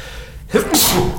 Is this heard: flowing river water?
no